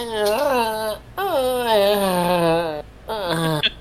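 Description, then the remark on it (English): A voice lets out three drawn-out, wavering moans, the first two long and sliding downward, the last one shorter, imitating a beached whale's groaning. “And, and I mean, I was making sounds like a beached whale just at the table, just like”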